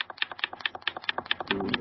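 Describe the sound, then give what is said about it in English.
Rapid, steady typing on a keyboard, a quick run of sharp clicks and taps, with no one speaking. “That would be somebody like typing.”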